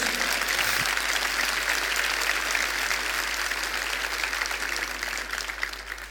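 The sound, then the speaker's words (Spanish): An audience bursts into sustained applause for the Lord Jesus, a dense wash of clapping from many hands holding steady and loud before easing slightly at the end, with no voices standing out. “Dale el aplauso al Señor Jesús.”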